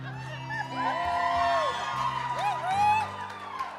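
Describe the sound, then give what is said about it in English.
Several audience members, the church hype squad of Pastor Alan DiDio, yell and whoop over a continuous crowd din, their rising and falling hollers overlapping loudly for a few seconds. “I'd have, don't take this personally, y'all people that keep yelling.”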